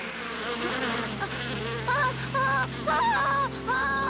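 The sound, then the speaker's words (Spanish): A swarm of dangerous bees buzzes steadily around a honeycomb, a dense droning hum with whining tones that rise and waver in short bursts over four seconds, with no voices. “Lástima que sea de abejas tan peligrosas que ni los hombres más valientes de la aldea se animan a enfrentarla.”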